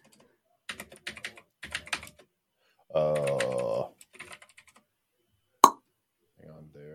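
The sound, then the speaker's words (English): Quick bursts of computer keyboard typing, clicking keys in short clusters as Control Z and Control V are pressed, then a brief spoken phrase and a single sharp, louder click before faint talk resumes. “Control Z over here. Control V.”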